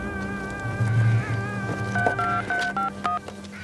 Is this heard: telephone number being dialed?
yes